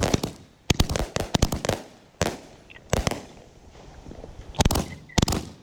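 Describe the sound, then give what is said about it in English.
A 25-shot firework cake fires off a rapid series of sharp bangs in irregular bursts, some shots clustered tightly, others spaced apart, loud with a crackling outdoor echo. “So and it's a 25 shot”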